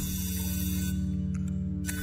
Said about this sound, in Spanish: ¿Será una vaca diciendo algo? Es la lente de la cámara digital.